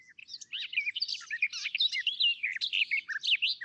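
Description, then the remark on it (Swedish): A migratory songbird that makes the Sahara crossing sings a rapid, continuous stream of varied warbling and chirping phrases, bright, with no pauses and no voices. “Den sjunger ju fantastiskt.”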